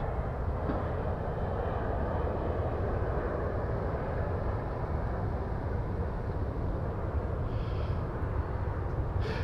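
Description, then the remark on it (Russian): A steady, low roar of an airplane passing overhead, filling the whole stretch with a broad rumbling drone that stays loud and even throughout, with no voices. “Сейчас пролетит самолет.”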